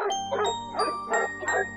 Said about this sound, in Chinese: 如果不是小点点一直拼命的狂吠。他们还不能快速反应过来，该向对方解释清楚 到底是怎么回事儿。